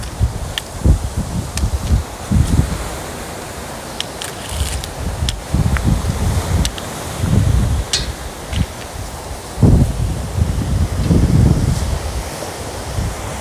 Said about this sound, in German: Ich gehe mit dem Blindenstock, deshalb das Tackern.